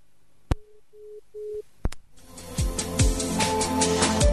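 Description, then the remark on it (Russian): A click, then three short, evenly spaced beeps of a telephone busy signal after a phone call is cut off, followed by more clicks and a burst of loud, dense line noise and clatter. “А, оборвался звонок.”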